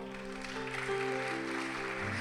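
An audience applauds in a steady, dense wash of clapping that runs the full length, blended with sustained keyboard chords playing underneath.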